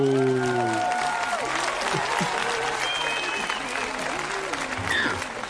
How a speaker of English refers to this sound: Thunderous applause. Thunderous applause. And well deserved,